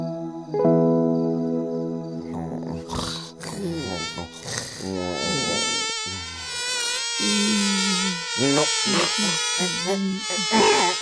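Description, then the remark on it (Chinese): Mosquitoes whine and buzz steadily for the whole stretch, several high, thin tones overlapping and wavering in pitch, a loud persistent drone with no talking over it. “天哪，怎么这么多蚊子啊？”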